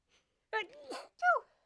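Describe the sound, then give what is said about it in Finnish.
A single attempt at a sneeze: a couple of breathy, wavering gasps building up, then a short voiced burst that trails off without a full explosive release. “oi kun aivastuttaa.”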